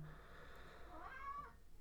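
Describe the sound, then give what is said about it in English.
A cat cries with a single drawn-out, rising meow lasting over a second, clear against a low background hum, with no talking. “all right, that's my cat crying.”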